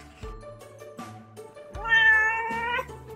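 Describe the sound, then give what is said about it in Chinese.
A cat meows several times, with short calls at first and then a louder, longer, drawn-out meow with a rising, wavering pitch. No one speaks. “我以前总是听不懂猫在说什么，可是今天我听懂了。”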